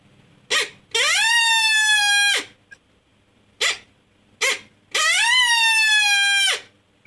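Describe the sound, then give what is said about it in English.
A person loudly imitates a short, fast challenge howl: a sharp yip, a sustained rising-then-falling wail, another pair of yips, then a second strong howl, with no talking. “Uh, a challenge is basically just a, a, a high volume, short, fast howl.”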